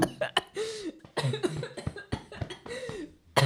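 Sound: coughing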